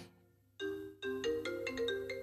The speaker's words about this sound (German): Dein Telefon läutet.